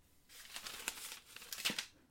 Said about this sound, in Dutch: Hij dacht tot net echt wat te horen. Geritsel, ergens op de grens van zijn gehoor. Hij schrok er wakker van. Geritsel, het druppen van olie ook misschien, maar in elk geval het ritselen van papier.